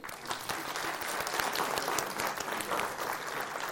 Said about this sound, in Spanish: Ok, eh, un aplauso a los jóvenes, ya.